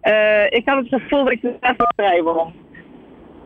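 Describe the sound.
A man speaks over a telephone line, and a short, steady keypad tone briefly cuts into his talk partway through, followed by a fainter blip as his voice trails off.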